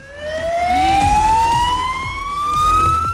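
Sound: emergency siren sound effect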